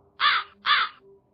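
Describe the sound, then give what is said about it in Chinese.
Two harsh, raspy crow caws in quick succession, each loud and lasting about a third of a second, with a short gap between them and no talking; a crow sound effect played from a collection of sound effects. “再来一个乌鸦”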